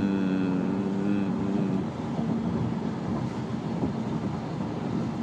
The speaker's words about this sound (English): is the inside of uh, our van.